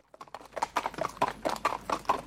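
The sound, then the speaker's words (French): Horse hooves clip-clopping at a steady two-beat trot, a quick regular series of sharp hollow strikes on a hard surface, clear with no voices. “Le cheval au trot, c'est deux temps.”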